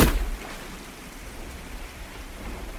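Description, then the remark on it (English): Heavy rain pours steadily onto the ground in a dense, continuous hiss with a deep rumbling undertone, slightly louder at the very start, then holding constant with no voices. “the rain washed it away in rivulets that cascaded down his form and tainted the soil.”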